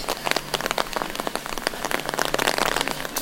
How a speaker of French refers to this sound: L'orage vient d'éclater.